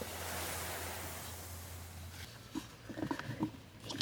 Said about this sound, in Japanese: 今ちょっとパラパラ雨降ってるんだけど木の下に入ると全く雨粒を感じなくて安心。